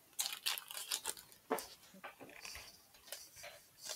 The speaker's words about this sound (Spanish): Sí, aquí están las, las cucharas. Bueno, más bien los cubiertos, ¿no? Porque es una cuchara y un tenedor.